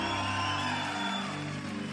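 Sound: audience shouting in praise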